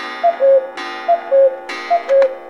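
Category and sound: bird, cuckoo call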